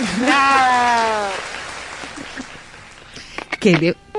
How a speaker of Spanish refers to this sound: Un, un aplauso. Gracias. Para, ¡Bravo!